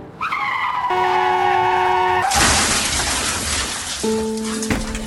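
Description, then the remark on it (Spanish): A car's tires screech in a long, loud skid, then the car crashes into a shop window, a sudden crash bursting out into a noisy wash of breaking debris, followed by a steady horn-like tone near the end. “Que nos hemos chocado, que nos hemos empotado contra una tienda.”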